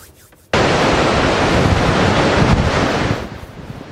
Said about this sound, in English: A thunderous torrent of water in central Texas as officials open the floodgates of a dam struggling to deal with historic flooding.